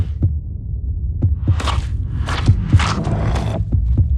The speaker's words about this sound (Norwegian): Selma prøver å gå den veien hjerteslagene fører henne.